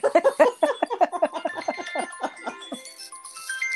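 A phone rings with an incoming FaceTime call, a bright, chiming ringtone melody of quick repeating notes, clear, fading into softer sustained tones near the end.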